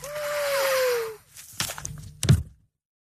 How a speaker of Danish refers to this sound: Du skal lige have pudset næse gang. Ja, det kan godt være, at lige skal have gjort det.